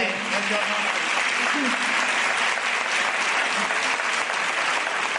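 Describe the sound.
Sustained applause from an audience fills the whole stretch, dense and steady clapping from many hands, with faint voices murmuring underneath.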